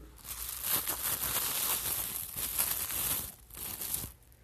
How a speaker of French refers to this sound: Tout d'abord, ce qu'il faut faire, c'est sûr que mes carottes, je les apporte euh, emballées, fait que ça va être euh, dans un petit plastique. Puis il faut déballer le plastique. Euh, ça sonne comme ça.